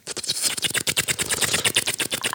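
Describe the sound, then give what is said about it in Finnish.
A voice imitates a helicopter with a fast, steady string of sharp clicking pulses, like rotor chop, fairly loud for a couple of seconds with no talking. “Helikopteri.”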